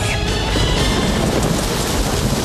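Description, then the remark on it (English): Steady, heavy rain hisses across the whole clip with a deep, rolling rumble of thunder underneath, loud, with no voices. “will have to wait until after it rains?”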